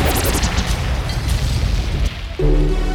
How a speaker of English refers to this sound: Yo, yo, DJ Alright Drop the gunshots